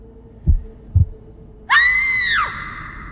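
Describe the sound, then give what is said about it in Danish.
A man's own heartbeat pounds in two deep, thudding beats with a rushing in his ears, then a person beside him lets out a loud, piercing scream that holds for nearly a second before trailing off, leaving a low rumble beneath. “Det er som om, at tiden står stille, og det eneste han hører er hans egen hjertebanken og en rumme for ørerne.”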